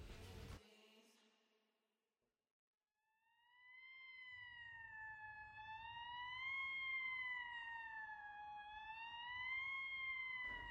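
police siren approaching

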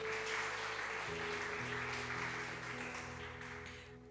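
audience applauding loudly

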